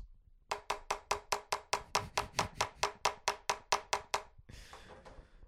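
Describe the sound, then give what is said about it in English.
A voice imitates a truck engine failing to start: a steady run of about seventeen loud, buzzy chugs, then a short breathy hiss as it gives out. “I don't know, but I think you really, uh, yeah, you you captured the sound of a motor that won't start.”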